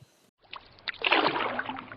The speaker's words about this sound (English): and rowed out into the water.